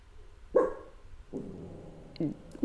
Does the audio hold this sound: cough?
no